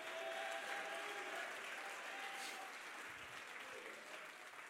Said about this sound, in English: Would you clap your hands and shout to the Lord?